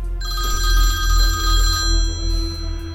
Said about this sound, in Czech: A pak mi uprostřed noci zazvonil telefon.